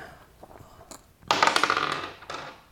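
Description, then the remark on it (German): Dice clatter onto a surface in a burst of rapid, bright clicks that gradually thin out, followed by a brief final rattle. No one speaks. “So, wollen wir loslaufen? Jo, würfelst du zuerst?”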